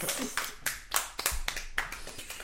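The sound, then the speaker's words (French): Sparse, scattered clapping from a small audience, a handful of irregular claps rather than a full ovation, fairly quiet overall. “Les applaudissements sont moins.”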